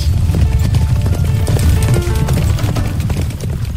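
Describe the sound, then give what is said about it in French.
A dense, steady, loud clatter of many horse hooves clip-clopping together, with a low rumbling undertone and no clear individual beat, continuing throughout without any voices. “Au début d'octobre, un premier convoi de 36 000 soldats volontaires accompagnés de 15 000 chevaux est prêt à traverser l'Atlantique pour rejoindre le front britannique.”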